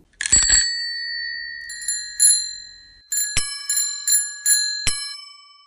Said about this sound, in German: Ob E-Bike, Kinder oder Hollandrad. Eine Fahrradklingel findet sich an fast jedem Lenker. Doch wer hatte die Idee dazu?